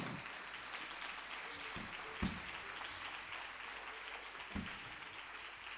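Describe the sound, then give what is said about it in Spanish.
A festival crowd in Valencia applauds a band steadily, a dense wash of clapping that holds at an even level throughout, with a couple of sharper claps or thumps standing out briefly. “Un fuerte aplauso para ellos que se lo merecen de verdad. Fuerte aplauso.”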